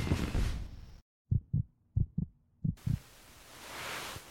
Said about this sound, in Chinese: 啊，话说，你为什么会心跳加速啊？